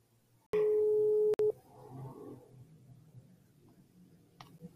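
signal or alarm, telephone ringing tone

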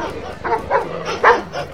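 animal, dogs barking

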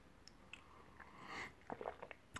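human body sound, person sipping water

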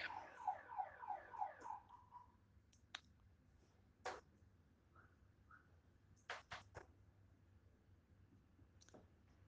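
signal or alarm, alarm going off

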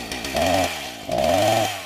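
tool, chainsaw engine revving

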